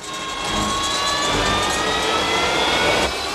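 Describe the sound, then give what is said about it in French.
A Harrier jet taking off, its engines building into a loud, steady roar with high, piercing turbine whines layered over deep rumbling. No one speaks. “Il a des centaines d'heures de vol sur des Harris Il est un peu rouillé pour l'instant, mais c'est du tasqueur tout craché ce décollage Il a toujours fait ça”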